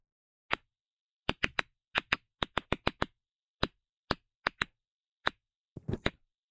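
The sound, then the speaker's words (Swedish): Roughly sixteen sharp, dry clicks recorded from a cut tomato plant, arriving singly and in quick irregular bursts like typewriter keys, ending with a rougher crackling cluster. Isolated, with no voices. “Så här låter då en tomat när den är uppskuren.”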